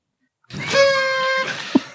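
A single drawn-out flamingo call, a nasal, reedy honk lasting under a second, heard clear, followed by a brief low thump.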